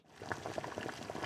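Water boiling at a steady rolling bubble, a dense, continuous stream of small pops and gurgles, with no voices over it.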